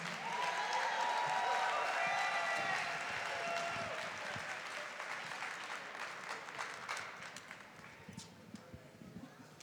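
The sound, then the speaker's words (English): A crowd applauds loudly and steadily after a performance, clapping densely at first before gradually thinning and tapering off toward the end, with a few scattered cheers mixed in. “Can we get another round of applause for that beautiful performance?”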